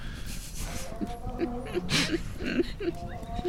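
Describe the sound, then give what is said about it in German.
A voice imitates the high, wavering wailing cries of a small lion cub, several short plaintive calls in a row, fairly loud, with a little breathy noise between them. “Ihr äh, hört Klageschreie eines kleinen Löwenjungen.”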